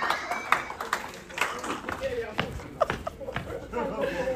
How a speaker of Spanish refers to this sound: Un aplauso a Jesús, por favor.